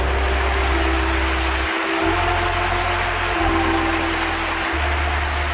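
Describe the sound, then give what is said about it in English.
An audience claps its hands to the Lord in praise, a dense, steady wash of applause that holds loud and unbroken throughout, with a low hum running underneath and no voices standing out. “Why don't we clap our hands mightily to the Lord?”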